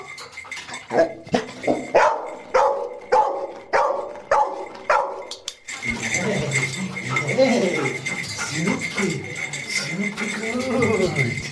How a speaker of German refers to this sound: Jetzt hat die Anouk mich gefunden, hat mich verbellt. Das ist ein sogenannter Verbeller.